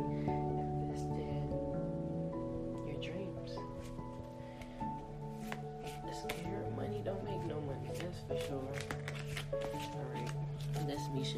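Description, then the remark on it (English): A deck of oracle cards being shuffled, crisp papery riffles and snaps coming in quick irregular bursts over steady, sustained background music. “I'm done shuffling the deck.”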